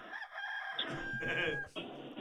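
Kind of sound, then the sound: bird, rooster crowing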